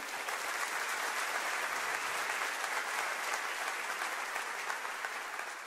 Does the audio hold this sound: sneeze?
no